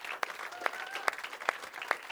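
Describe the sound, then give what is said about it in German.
Audience applause at the Oase Church in Vösendorf, welcoming viewers, a dense wash of clapping with sharp, regular accents about twice a second, as if part of the crowd claps in rhythm. A faint whistle-like tone briefly rises above it. “Wir wollen euch hier ganz kräftig mit einem gewaltigen Applaus begrüßen aus der Oase Church in Vösendorf.”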